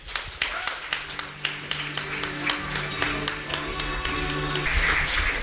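An audience applauds, its sharp claps falling in a fairly steady, rhythmic pattern over about five seconds, with a low sustained musical tone humming underneath and the clapping thickening toward the end.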